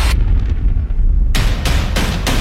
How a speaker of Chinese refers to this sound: 黄潇的整个背部砸向地面，前身承受住了面具男的巨大力量。这一击空中重砸，直接把黄修的五脏六腑都砸了个七零八落。